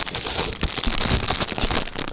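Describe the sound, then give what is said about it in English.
Continuous crinkling and rustling of box packaging as socks are pulled out of it, with dense crackly bursts as they come free; no one speaks. “Make sure we really ruffle. I'll hold it. Oh, pull, oh, yeah. pull the socks out of the, the box.”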